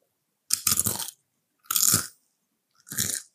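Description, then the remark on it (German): Three loud crunching bites in a row, each a dense burst of brittle crackling with short silent gaps between, like someone chewing a crisp snack. “welchen Snack isst du jetzt gerade?”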